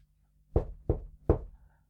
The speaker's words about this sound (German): Und schließlich, nach langer, langer Arbeit, viel Schweiß und noch mehr Ausdünstungen in dem Raum, klopfte Beppo an die Tür.